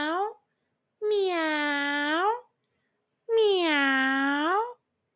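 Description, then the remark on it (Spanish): Two long, drawn-out cat meows, each rising then sliding down in pitch, fairly loud, following the tail end of an earlier meow, with silent gaps between. “Estaba Cocorico recogiendo palitos con el pico y de repente oyó. ¡Miau!”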